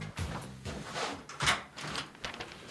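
A door being opened close by, with a couple of sharp clunks and a brief scraping rattle amid low rustling and muffled movement.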